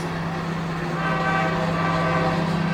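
A train horn blares loudly and steadily over the heavy rumble of a passing freight train, sustained for the whole stretch with no voices.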